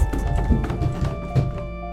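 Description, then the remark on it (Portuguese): Quick, hollow thumps land in an uneven hurried rhythm as two people run down wooden stairs, moderately loud, with a faint steady hum underneath. “Descemos as escadas correndo em direção à cama dos nossos pais.”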